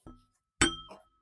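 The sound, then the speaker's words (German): Glasses clink together in a toast: a light tap, then a louder, bright clink that rings briefly and trails off with a softer touch, with no talking. “Hm, ah, hm, oh, riecht ja gut. So, Prost.”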